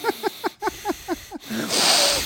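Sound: imitated loud heavy breathing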